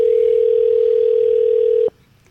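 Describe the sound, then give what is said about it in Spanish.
A steady, loud telephone tone after a dropped call holds one unbroken mid pitch for nearly two seconds, then cuts off abruptly into near silence. No voices are heard. “Lo sentimos. Oh, Su llamada. Se cayó.”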